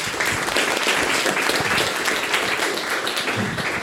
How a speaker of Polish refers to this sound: Wielkie brawa.